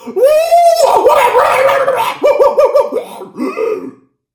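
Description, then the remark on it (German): A person lets out a loud, drawn-out vocal roar imitating a monster, rough and growling, broken into several strained bursts before trailing off. “Bei diesem entsetzlichen Gebrüll sprangen alle Anwesenden auf.”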